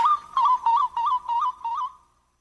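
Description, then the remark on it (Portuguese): A person whistles an imitation of a solitary tinamou (macuca) call: six short, wavering notes in a steady rhythm, clear, the last one trailing off into silence. “ele pia bem, sabe? Ele tem um pio bom.”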